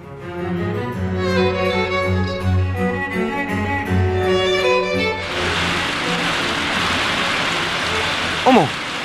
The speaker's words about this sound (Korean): 아, 갑자기 비가 오네? 아, 창문 닫아야겠다. 여보, 밖에 비 와.